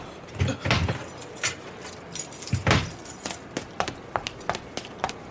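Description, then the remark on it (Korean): Keys jangle and clink as a male staff member comes out from behind the counter with the key that opens the restroom door from outside: a string of bright metallic bursts, a few louder rattles early on followed by lighter, scattered taps and chimes. No one speaks. “놀란 남자 직원이 화장실을 밖에서 열 수 있는 맞는 키를 가지고 카운터 밖으로 나왔다.”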